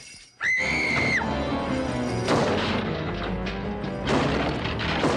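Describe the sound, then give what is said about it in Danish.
A sharp scream rings out, followed by loud splintering crashes as a man smashes in a front door again with one blow, nearly the whole door breaking, with a second heavy burst of breaking noise a couple of seconds later. “Og så smadrer han bare døren ind igen.”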